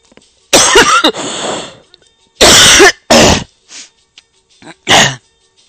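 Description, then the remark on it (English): Several loud coughs in separate bursts, some harsh and throat-clearing, with brief pauses and softer breaths between them; no talking. “And uh, hang on a second. I need to cough.”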